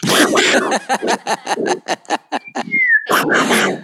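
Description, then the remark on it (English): A voice imitates fireworks: a rapid string of about a dozen sharp popping bursts, then a rising whistle and a final loud, noisy bang. “are the fireworks still happening um, oh my god they they started in may oh it's crazy and and if you need to know what they sound like they sound like this like”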